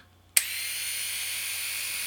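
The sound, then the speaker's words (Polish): A waterproof, IPX7-rated electric rotary shaver is switched on for a demonstration with a sharp click and settles into a steady, high-pitched motor whine that continues evenly, with no talking. “No a teraz przystępuję do prezentacji. Y, włączam golarkę.”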